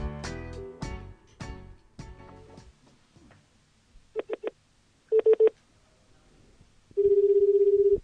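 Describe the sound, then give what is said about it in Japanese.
A phone call being placed for an interview with a guest: a few clicky key presses, then short bursts of dialing beeps, followed by a steady, buzzing ringback tone as the line rings. Fairly loud, no voices. “えー、これからじゃあ、今度、電話かけてみたいと思います。”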